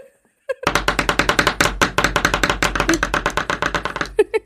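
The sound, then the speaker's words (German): Drumsticks, played by a non-drummer with the microphone held directly on them, rapidly striking in a fast, steady roll of about thirty sharp, loud clacks over roughly three and a half seconds, each hit crisp and percussive, with no talking over them. “Ich habe mir so Drumsticks bestellt vor ein paar Wochen. Äh, ich bin kein Schlagzeuger, aber trotzdem hört euch das mal an.”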